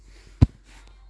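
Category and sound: human body sound, loud sniff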